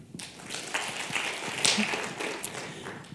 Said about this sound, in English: Um, you now can clap. I want you to clap for the company that you trust the most. You can only clap once, right? So if you think that you trust Google the most, clap now.